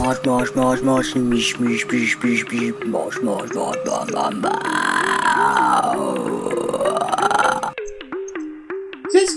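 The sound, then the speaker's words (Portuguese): A song with silly, croaky vocals: choppy stepped notes over a steady beat, then a long warbling, swooping vocal line before the music drops to a sparser pulse at the end. “Olha, se eu fosse o …, né, eu faria um remix dessa música, explorando mais esses vocais engraçados, jogava uns ecos assim, estendia esses assim, jubi jubi jubi jubi jubi.”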